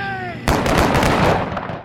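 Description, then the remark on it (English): A sudden burst of rifle fire from a formation of guardsmen firing at students on a hill erupts after a brief tonal hum, with a rapid volley of sharp cracks blending into a loud, sustained crackling roar that fades slightly at the end. “Then a formation of guardsmen marched up the hill and fired their rifles at the students.”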